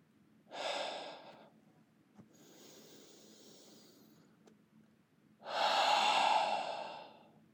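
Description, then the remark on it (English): Slow, deep breaths at the start of a guided meditation: a long airy inhale, a quieter pause, then a fuller, louder exhale, with soft breathy noise and no talking. “Let's begin with a few deep breaths.”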